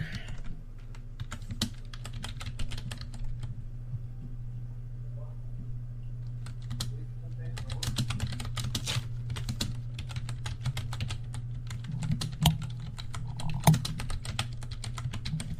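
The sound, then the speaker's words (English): Rapid, irregular clacking of keys on a computer keyboard, coming in bursts with a brief lull in the middle, set over a steady low electrical hum. “what are you typing?”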